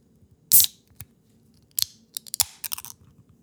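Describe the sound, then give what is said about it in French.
A 500 ml can of Red Racer beer is cracked open with a sharp hissing burst, followed by scattered metallic clicks and a run of crisp fizzing sounds as the beer is poured. No one speaks. “là, ce qui est le fun, c'est que cette semaine, on va pouvoir refaire un ASMR, n'est-ce pas? Parce qu'on est en canette.”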